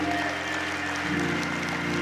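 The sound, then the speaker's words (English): An audience claps and applauds as a hand clap of praise to the Lord, in a steady, dense wash of hand claps that holds at an even loudness throughout, with sustained musical tones humming underneath. “If you believe that, give the Lord the biggest hand clap of praise.”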